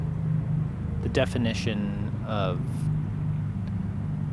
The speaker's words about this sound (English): It's off the highway and you can probably hear it in the background. But besides the highway noise,